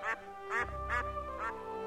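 A duck named Dotty quacks four times in a steady, evenly spaced run as it climbs up the ramp into its duck house, each call short, nasal and buzzy, sounding over a low rumble with no voices.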